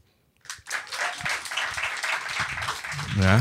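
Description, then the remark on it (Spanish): An audience breaks into steady applause after a brief silence, clapping to show who among them voted at least once for Rafael Correa. The applause is a dense crackle of many hands that holds for about three seconds, with a voice cutting in near the end. “Queremos saber, por aplausos, ¿quién aquí votó al menos una vez por Rafael Correa?”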